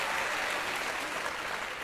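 Sustained applause from an audience, called for by the host for some audience members, a dense, steady wash of many hands clapping with no clear rhythm, holding at an even, moderate level throughout.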